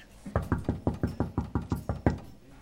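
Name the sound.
knocking on a door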